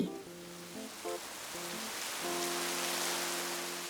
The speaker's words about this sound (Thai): ช่วงนี้ฝนตกชุกเกือบทุกวัน น้ำก็ขึ้นมาพอสมควร